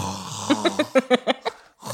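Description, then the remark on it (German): A voice imitates open-mouthed snoring with a quick run of about seven short, throaty rasping bursts in a steady rhythm. It is moderately loud, followed by a brief pause and a breathy sound. “Also, wenn ihr es irgendwann mal im Hintergrund lachen, kichern oder schnarchen hört, ja.”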